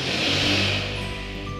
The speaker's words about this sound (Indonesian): Eh, ada suara motor kedengeran gak sih? Gak apa-apa deh.